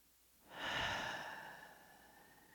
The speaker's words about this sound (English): You will be sitting on a chair at the center of this room, breathing in